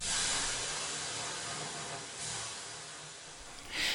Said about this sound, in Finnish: Tässä kohtaa heitetään löylyä ja sitten jatketaan vähän jutustelua.